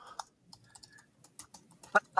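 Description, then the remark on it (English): Computer keyboard keys tapping and clicking in an irregular burst, with a couple of louder, sharper clicks near the end. No one speaks. “You can hear me clicking about.”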